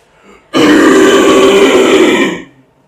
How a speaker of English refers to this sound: that's like a, a fry, you know, and a false chord, which I do my lower screams like that. They're a lot more beefy, a lot more powerful.